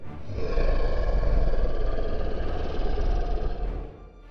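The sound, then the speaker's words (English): A deep, rumbling growl from a monstrous Pinto car swells in and holds steady and loud for about three seconds, gravelly and throaty with a rough, grinding texture, then fades out. No one speaks. “And as soon as you spew that blood, that growl happens, and you know exactly where that growl's coming from.”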